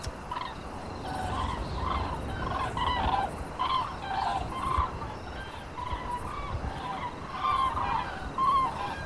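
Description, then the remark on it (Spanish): Guria birds calling in a steady stream of short, warbling, gobble-like notes, repeated in bursts over a constant low rumble of background noise, with no speech. “Agachados, seguíamos escuchando a las gurias, su canto.”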